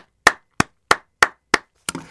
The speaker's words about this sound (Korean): 아주 잘하셨습니다. 박정윤 씨 박수를 보내드립니다.